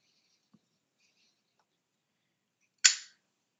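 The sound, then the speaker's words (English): A single sharp click of a lighter being struck to light a candle, fairly loud, with a brief crackling tail, after several seconds of near silence broken only by a faint tap. “And I'm just going to try one more time to light this because I would love to have this going for our experience today.”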